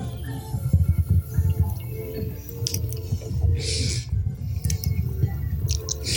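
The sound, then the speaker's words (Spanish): Someone downs a shot of aged liquor: soft wet sips and a few gulping swallows over several seconds, with faint clinks and rustles in the background and no talking. “Yo no tengo por costumbre tomar esto, pero. No, pues se fue solito. Ay, como agua.”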